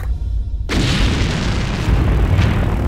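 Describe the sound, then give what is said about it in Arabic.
A loud explosion, the blast that killed Qassem Soleimani, erupts after a brief low rumble, its broad blast rolling into a sustained roar of debris and reverberation that fills the rest of the moment. No one speaks. “هنا انفجار انهى قاسم سليماني ليفتح الافق امام الاسئله الصعبه والغاز ايران وحلفائها في المعادله الاقليميه الملتهبه”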